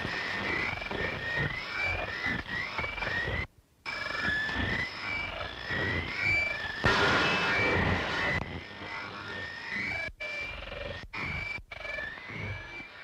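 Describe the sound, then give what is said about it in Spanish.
A shortwave radio broadcast of strange, reversed-sounding music, warbling tones wavering over constant static hiss, with several abrupt brief dropouts to silence. No one speaks. “Esa es la de Backward Music Station.”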